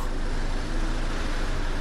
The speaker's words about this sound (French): Au bout de quelques minutes, une voiture de police s'arrête à leur hauteur.